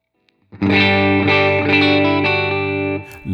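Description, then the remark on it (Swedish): An electric guitar with signature humbucker pickups plays a few loud, sustained chords in the middle pickup position, with a thick, slightly distorted tone full of harmonics and a chorus-like shimmer, no talking. “mm och sen så mellanläget.”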